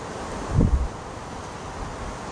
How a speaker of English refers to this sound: I love that wind. Gonna fucking create a dust storm.